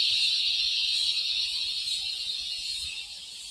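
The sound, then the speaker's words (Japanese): Cicadas drone in an Australian summer, a steady, high, shimmering buzz that fills the whole stretch without pause, fairly loud, easing slightly toward the end with no voices over it. “蝉の鳴き声が本格的な夏の到来を教えてくれています。”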